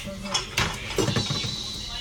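Dishes and cutlery clatter while being washed, recorded on 15 October 2020, with scattered clinks and knocks over a steady wash of running-water hiss and some faint background voices.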